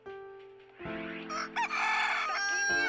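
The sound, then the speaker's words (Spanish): A neighbour's rooster crows loudly, one long drawn-out cock-a-doodle-doo with a rising, strained middle, over a steady low hum in the background. “¡Vecino! ¡Ya calla ese animal! ¡Che gallo!”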